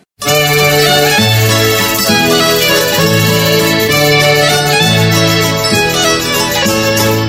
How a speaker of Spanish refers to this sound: Y estamos en Chile, una de las estudiantinas de más renombre y antigüedad, podríamos decir, que es la estudiantina de la Chimba de Santiago. Vamos a escuchar a ellos una serenata tradicional Salir, niña hermosa.